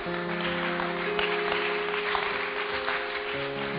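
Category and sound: crowd, audience clapping hands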